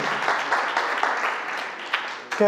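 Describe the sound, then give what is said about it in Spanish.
An audience applauds for the teachers who educate the children in the word of God, steadily for a couple of seconds, a dense wash of many hands clapping at once, fairly loud and even, with a brief voice cutting in at the very end. “Y un aplauso, ¿verdad? Para la maestra, donde quiera que están.”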